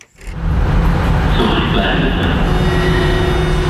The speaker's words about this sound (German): Kein Gedränge. Etwa halb voll ist die Berliner U-Bahn an diesem Mittag.